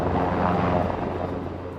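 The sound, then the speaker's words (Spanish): A helicopter roars steadily and loudly throughout, flying to reach villages in the Atlas that can only be reached by air, its engine drone and low rotor hum constant, with no voices or other sounds breaking through. “Solo en helicóptero se puede llegar a algunos pueblos del Atlas.”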